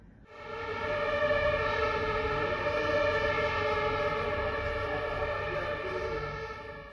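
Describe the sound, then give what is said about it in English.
A fire truck siren, switched on by the driver as the truck leaves the fire station for a fire, sounds one loud, sustained tone that holds a steady pitch for about seven seconds, rich and buzzy with overtones, with no voices over it. “驾驶员将消防车上的警铃开启，路上的行人与车子都立刻靠边暂停，让消防车可以用最快的速度到达救灾现场。”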